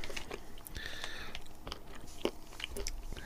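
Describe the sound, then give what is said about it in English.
Crisp biting and chewing of a crunchy treat flecked with small smashed pieces of Fruit Tingles candy, with repeated wet crunches and mouth sounds over a few seconds and no talking. “okay, well, let's see what happens as you uh, munch down on that.”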